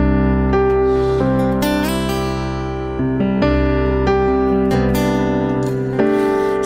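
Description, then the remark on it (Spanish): A live band plays its first hit song with full, sustained chords that shift every second or so, punctuated by bright cymbal-like splashes, loud and continuous with no voices. “el primer éxito, el primer éxito precisamente fue, suena más o menos así. A ver, un tonito.”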